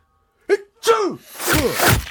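A theatrical, voiced sneeze: two short sharp intakes build up, then a loud, drawn-out, breathy 'choo' with a falling pitch, heard on its own.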